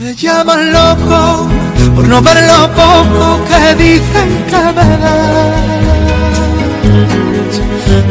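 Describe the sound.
A Spanish-language pop ballad from 2013 with a male voice singing over a full, steady band arrangement, loud throughout with a warm low end.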